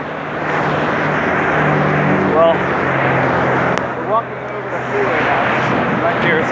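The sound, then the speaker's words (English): Steady, loud road traffic in Windsor roars throughout, a dense wash of engine and tyre noise from many cars, with brief snatches of voices surfacing over it now and then. “uh, Windsor traffic. Apologize. This cars. Is, uh, too loud.”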